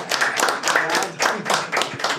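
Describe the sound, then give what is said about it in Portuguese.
An audience claps for the guest for a couple of seconds, a dense, fairly loud patter of hands with a slightly rhythmic pulse and no voices over it. “Uh, é Salve de palmas!”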